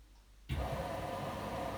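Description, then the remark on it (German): After a brief quiet moment, a button-operated washing machine, just started with its timer and start buttons, abruptly begins pumping in water, a steady, fairly loud rushing and hissing that continues unbroken to the end. “Jetzt pumpt sie gerade Wasser auf.”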